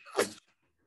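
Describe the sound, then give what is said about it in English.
A single sharp sneeze bursts out, loud and breathy, cutting off abruptly and leaving near silence afterward. “bless you.”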